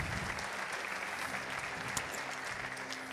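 An audience applauds the Lord steadily, a dense wash of many hands clapping at an even loudness for the whole stretch, with a faint low hum underneath and no voices standing out.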